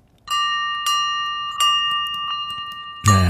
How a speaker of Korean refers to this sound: 맑은 종소리가 오늘 보물소리입니다.